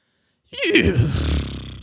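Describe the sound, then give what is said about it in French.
After a brief silence, a single loud horse vocalization begins abruptly: a rough, throaty call with a wavering pitch that lasts over a second and fades slightly at the end; a call meaning the horse is hungry. “je vous ai ramené 300 expressions favorites des chevaux pour mieux les comprendre”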